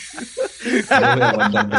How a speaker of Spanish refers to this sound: Hostia, eso ha sonado, eso ha sonado a, a café, casi cafetera, ¿no?